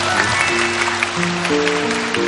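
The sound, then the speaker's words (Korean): An audience claps steadily for two guests for the whole stretch, a dense even wash of applause, with sustained low musical notes sounding beneath it and shifting pitch partway through. “네, 저희 제작진들이 그런 것까지 다 파악을 해서 두 분에게 박수 한번 부탁드립니다.”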